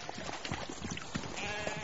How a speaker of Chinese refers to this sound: 白白的羊群慢吞吞的走着，咀嚼着肥美的嫩草。时而抬头叫几声，来回应这伟大的寂静。